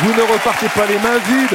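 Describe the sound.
Steady audience applause fills the background while a man speaks over it, the clapping a continuous crackling wash running the full length of the short moment.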